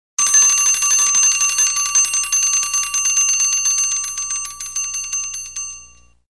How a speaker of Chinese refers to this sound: 凌晨四点就被一阵闹钟的铃声惊醒了